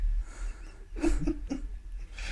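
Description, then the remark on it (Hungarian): Heavy, rhythmic panting breaths come in a quick series of raspy bursts, moderately loud over a low background rumble. “Nagyok a szuszognak.”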